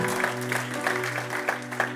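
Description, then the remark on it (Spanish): A crowd claps together in a steady, rhythmic beat, a strong round of applause given to Christ during a sermon, over a sustained low musical tone. “Denle ese aplauso fuerte a Cristo porque Él es bueno.”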